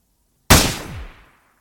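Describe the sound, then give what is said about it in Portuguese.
A single loud gunshot cracks out suddenly at a hotel after a moment of silence, its sharp blast ringing and decaying over about a second. No one speaks. “De repente, um disparo.”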